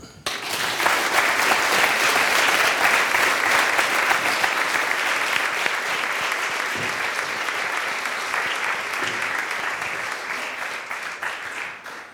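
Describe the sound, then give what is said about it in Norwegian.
An audience claps steadily for about twelve seconds for two speakers, Stein Førde and Ole Jakob Madsen, a dense, even wash of many hands that holds strong before gradually thinning and fading toward the end. No one speaks over it. “Gi dem en applaus.”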